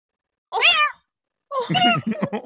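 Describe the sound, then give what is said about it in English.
A person imitates the meow of a huge male Maine Coon mix cat: one short, bending mew, a pause, then a longer, rougher meow that breaks into choppy pulses at the end. “I had a giant Maine Coon blend that I got as a kitten at the shelter, and and he was huge, and he had uh, his you know massive, graceful, powerful, beautiful cat, and his meow was.”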